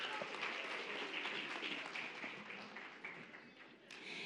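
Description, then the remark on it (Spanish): Steady audience applause for a young guest on a radio show, many hands clapping at once in a dense, continuous patter that holds for a few seconds with only slight dips in loudness, no voices standing out. “Muy bien, aplauso para nuestra maravillosa”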